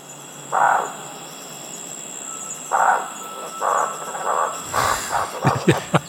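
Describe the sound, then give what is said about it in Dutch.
A series of soft, whistled hoots from an owl, spaced irregularly and then quickening toward the end, with a faint steady hum in the background and no talking. “de uilen klinken hier heel anders”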